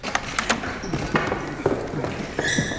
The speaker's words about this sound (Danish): Det, man øh, hører her, det er lyden af en øh, 26-årig demonstrants krop, der først bliver sådan kastet i gulvet, og så slæbt ud af den sal, hvor øh, Le Pen holdt pressemøde